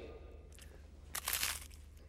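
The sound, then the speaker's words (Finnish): Someone bites and chews crunchy astronaut food, eating an astronaut lunch in Earth orbit: a soft crackle, then a louder, brittle crunching burst lasting about half a second, over a low, steady hum with no talking. “On aika lähteä ja syödä astronauttilounasta maan kiertoradalla.”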